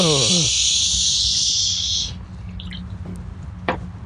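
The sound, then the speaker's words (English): A Busch Latte beer can hisses open in a loud fizz lasting about two seconds, followed by a quiet pause and a single sharp click; a brief low voice sounds at the very start. “The uh, desert just probably dropped a few degrees here after I opened that open that Busch latte.”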